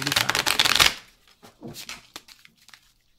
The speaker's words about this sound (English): pulls out a deck of cards and shuffling them.